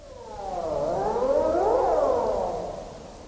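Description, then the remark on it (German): A seal call in the Wadden Sea sounds alone, one long harmonic wail that glides up and back down in pitch over about three seconds, resonant and slightly echoing, steady in loudness. “in der Hoffnung, dass die Rufe der Robben nicht irgendwann für immer verstummen.”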